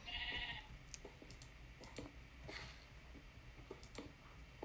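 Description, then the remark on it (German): A single short bleat from a sheep in a cave in a video game sounds at the start, fairly loud, followed by a series of soft scattered clicks and taps with no voices. “Hier ist ein Schaf in der Höhle, okay.”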